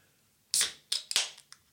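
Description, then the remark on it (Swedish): A drink that had fallen over once is opened: a sharp crack and hiss of escaping fizz, followed by a few shorter hissing spurts and clicks in quick succession, with no talking. “Men tänk, upp, när du öppnar den där nu. Tänk på att den har ramlat omkull en gång.”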